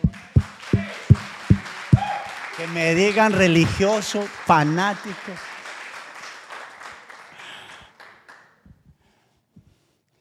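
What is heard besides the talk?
audience applauding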